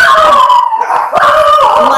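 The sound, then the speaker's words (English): Three dogs howl together in a bedroom, loud sustained wavering cries that rise and fall in pitch, with a brief dip before the chorus swells again; no talking. “And I got three dogs.”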